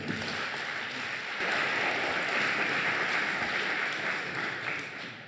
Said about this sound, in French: Applaudissements pour nos invités, s'il vous plaît.